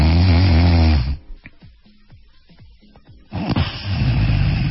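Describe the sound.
A voice imitates snoring, in a discussion of sleep and sleep apnea, with a loud, harsh rattling burst, falls quiet with a few soft breathy clicks, then resumes with another rough, buzzing snore that continues to the end.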